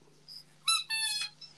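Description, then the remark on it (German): A dog lets out two short, high-pitched squeaky whines in quick succession, moderately loud, over a faint steady hum with no talking. “Das war mein Hund.”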